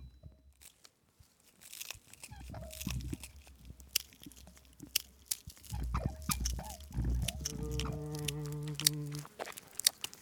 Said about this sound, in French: On entend quelqu'un qui arrive derrière nous.